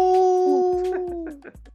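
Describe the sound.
A person imitates a wolf with a long, steady, sustained howl that slowly slides downward in pitch, loud, with faint other voices or short sounds breaking in toward the end.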